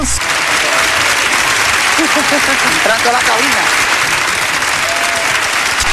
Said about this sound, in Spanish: Ahí están los, ahí están los aplausos.